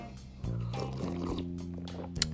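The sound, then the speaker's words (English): Mouth sounds of someone sipping a hot cup of weight-loss detox tea, with a murmuring hum and a short, sharp slurp near the end. “Let me just get one little sip of this tea, one more.”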